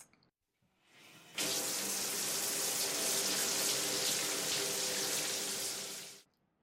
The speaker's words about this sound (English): Nita using water from a tap to wash some vegetables